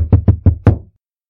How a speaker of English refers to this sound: After hugging Mama Peters, Penelope walked to Pearson's bedroom. She knocked gently on the door.